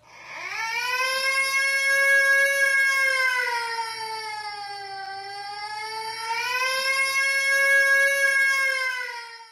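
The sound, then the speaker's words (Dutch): A baby who has just walked into a glass door wails in one long, unbroken cry, high-pitched and strained, swelling loud, sagging lower in the middle, then rising again before trailing off. No one speaks. “Het is geen vogel. Het is een baby.”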